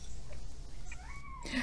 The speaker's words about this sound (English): I don't know if you can hear my cat meowing.